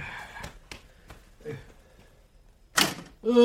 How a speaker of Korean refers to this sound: 아, 전원 차단한 것부터 올려주세요.